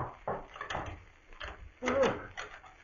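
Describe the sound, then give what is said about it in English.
A door is unlocked and opened at night: a few metallic clicks and rattles of the lock, then a louder wooden thunk and scrape as it swings, with faint murmuring in the background. “Wait till I unlock the door.”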